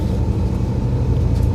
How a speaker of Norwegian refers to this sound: Her sitter han på en buss, så lyden er litt dårlig.